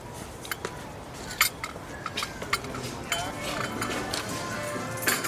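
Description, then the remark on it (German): Several sharp ceramic clinks scattered over a few seconds as a cup on a saucer is handed back, amid a busy background murmur of voices. “Und äh, Tasse, unter Tasse.”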